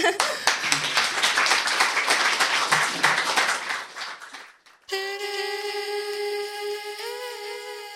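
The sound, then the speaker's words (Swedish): Steady, dense applause from a crowd, loud for about five seconds before tapering off, then cut off by music with sustained, bright tones. “En applåd.”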